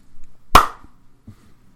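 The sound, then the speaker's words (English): A single sharp hand clap marking a recording, loud and brief with a quick fading tail, followed by a couple of faint low thumps in otherwise quiet surroundings. “Oh, that was a crappy clap.”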